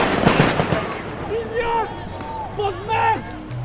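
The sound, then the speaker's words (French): A quick cluster of sharp pops from grenades fired in all directions by gendarmes, followed by loud, drawn-out shouting voices rising and falling over a rumbling crowd background. “Le blindé n'avance pas, les gendarmes tirent des grenades en tous sens.”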